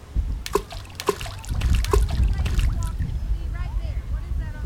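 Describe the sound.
Water splashes and sloshes beside a small boat in several quick bursts as people get into the water to swim and feed stingrays, over a steady low rumble, with faint voices and chirpy sounds in the background.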